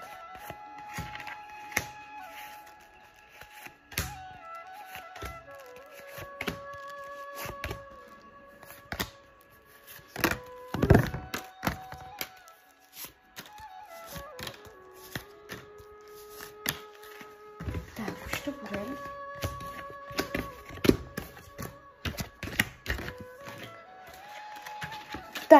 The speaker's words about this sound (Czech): A já už se dívám na vaši fotku, míchám u toho karty a my se spolu podíváme, jaká bude pro vás energie v roce 2023 plus leden a únor 2024.